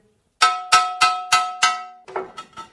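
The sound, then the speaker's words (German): A thin stone slab, about 16 to 17 mm thick, struck five times in a steady rhythm, each hit ringing with a clear, bright tone that fades, followed by three softer, duller taps. “Ja, ich habe jetzt drei verschiedene Steinplatten hier, dann können Sie mal den Ton hören. Das ist jetzt einmal eine dünne Platte”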